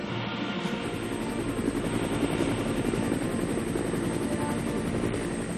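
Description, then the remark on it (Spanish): An American military helicopter of the Vietnam War flies steadily, its rotor thudding in a fast, continuous rhythm over a loud engine whine, dominant throughout with no voices. “4.320 helicópteros americanos como este serán destruidos en el delta de Mekong.”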